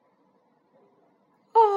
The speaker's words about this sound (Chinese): 哦，阿胡打了一个大哈欠